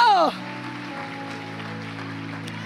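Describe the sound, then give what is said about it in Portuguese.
An audience applauds the Lord in a dense, steady wash of clapping that carries on evenly, with a low sustained tone humming underneath and a brief voice at the very start. “Aplauda o Senhor.”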